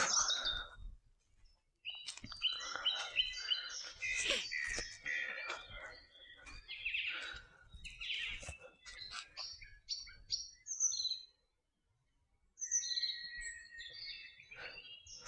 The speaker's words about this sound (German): Hörst du auch die Vögel hier über das Mikrofon? Ich weiß es nicht genau. wunderschöner Morgen hier.